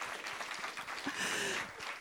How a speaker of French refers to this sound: Et on les applaudit, c'était très bien.